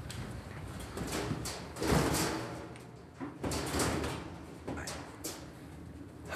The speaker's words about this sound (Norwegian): Og nå lukket vi døren til den gamle avdelingen, går gjennom en bro og kommer inn i Bergen statsarkivs moderne avdeling.